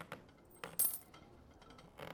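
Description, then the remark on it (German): One more coin is added onto other coins, clinking down with a short, bright metallic ring, surrounded by a few softer taps and rustles, with no voices. “Eine Münze lege ich noch drauf, aber dann ist auch gut, ne?”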